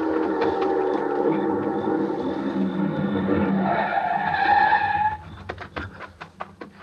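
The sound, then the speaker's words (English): A fast-moving car's tires squeal in a long, loud skid that rises in pitch before cutting off abruptly, followed by a few sharp knocks and rattles as the vehicle comes to a halt. “The car was close now and moving fast.”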